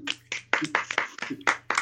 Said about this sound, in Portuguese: Palmas para nós, hein?